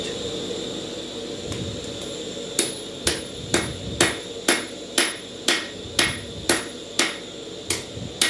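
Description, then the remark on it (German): A blacksmith hammers metal in a smithy workshop in a steady rhythm, about a dozen sharp ringing strikes roughly every half second, over a constant roaring hiss from a gas-fired forge burning at 950 degrees. “Ein kleines Hinweisschild zeigt Schmiede – wir biegen um die Ecke. Wir haben eine Verabredung mit dem Schmied.”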